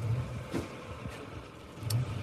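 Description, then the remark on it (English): A mail truck's engine rumbles with a steady low drone, swelling slightly toward the end as it draws closer. No voices are heard. “Right, that's the mail truck coming.”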